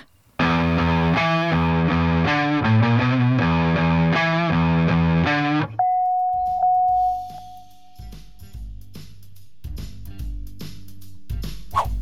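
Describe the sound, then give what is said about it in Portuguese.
A loud distorted electric guitar chugs out rhythmic power chords for about five seconds, then rings into a single sustained note over quieter, rumbling low tones. “Esse foi o som da guitarra!”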